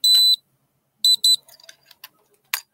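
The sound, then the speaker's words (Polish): A light-measuring device switches on to measure blue light from a monitor and beeps: one longer, high-pitched electronic tone, then two short beeps in quick succession, followed by faint clicks and handling noises. No one speaks. “Sprzęt się załącza, dobra. To mierzymy teraz skąpa.”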